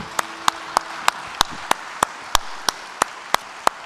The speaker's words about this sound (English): You have to clap over something like that and rejoice, don't you?